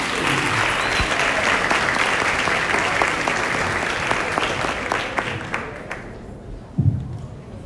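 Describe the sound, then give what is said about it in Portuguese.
Sustained audience applause at a congress as a speaker is called up to the stage, a dense wash of many hands clapping at steady loudness for several seconds, then thinning out and fading toward the end with a few scattered claps and a low thump. “Palmas para o”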